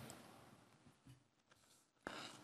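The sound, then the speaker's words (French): A soft, crackly rustle of a thin 17-micron paint film being peeled from its backing sheet as the protective layer is removed, quiet at first, then a brief louder tearing rasp near the end, with no talking. “Et donc, en fait, ça se, ça, se, décolle de la feuille. Voilà. On retire le protecteur.”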